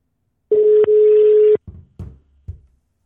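A steady telephone tone hums for about a second, broken by a click, then three short muffled bursts follow at even intervals as an outgoing call is placed to a train driver of the Dutch railway NS. No one speaks.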